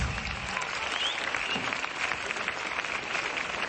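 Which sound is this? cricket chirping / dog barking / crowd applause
crowd applause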